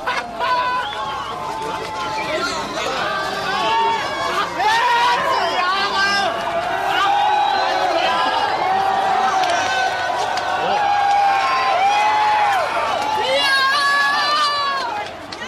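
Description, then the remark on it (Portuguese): Real audio from that night: thousands of people crossing the border to the western side laugh, shout and celebrate, many voices overlapping in a steady, excited roar of yelling, laughter and chatter that stays loud for the whole stretch. “Esse áudio é real daquela noite com milhares de pessoas cruzando a fronteira para o lado ocidental, rindo, gritando, comemorando, e os policiais meio atônitos, sem fazer nada”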